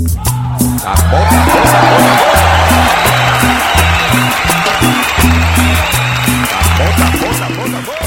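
audience applause

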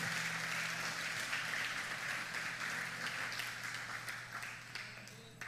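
audience applauding

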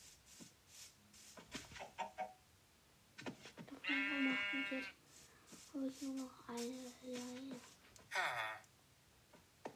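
sheep bleating

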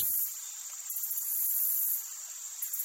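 forest ambience with crickets

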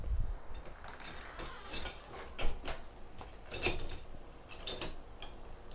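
door being closed

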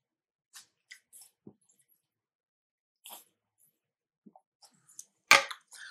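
person drinking water

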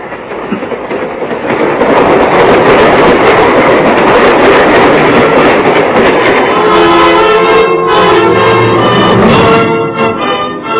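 train running on rails

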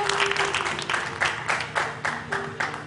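audience applause

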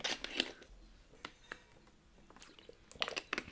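sipping and drinking water

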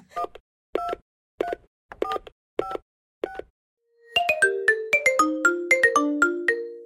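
telephone being dialed

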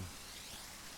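waterfall rushing

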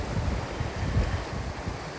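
ocean waves

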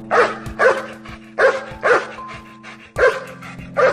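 labrador dog barking

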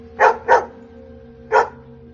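dog barking

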